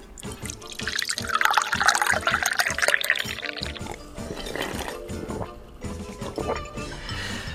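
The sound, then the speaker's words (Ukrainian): Vodka pours into a glass in a steady, gurgling stream for a few seconds, then trails off into softer trickles and faint clinks. Fairly loud, with no talking. “Давайте лийте свою горілку.”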